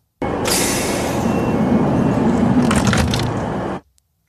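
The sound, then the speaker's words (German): A regional train (Regionalbahn) door closes: a steady, loud mechanical rumble and hiss lasting over three seconds, with a sharp hissing burst near the start and crackling bursts toward the end before it abruptly stops. “Tür Türgeräusche von Zügen”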